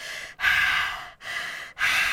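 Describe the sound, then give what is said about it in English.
A person imitates heavy, rhythmic labor breathing: three loud, breathy exhales separated by brief pauses, with no talking. “I was doing the I'm in labor breathing.”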